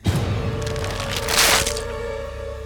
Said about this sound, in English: He felt pressure on his back. It was heavy yet delicate. He heard his spine snap before he felt it.